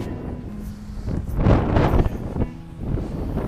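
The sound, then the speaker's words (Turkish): Loud wind coming from all directions buffets the microphone in continuous gusts, a rumbling, roaring low-frequency noise that swells and dips over a few seconds with no voices heard. “Rüzgar da her taraftan geliyor.”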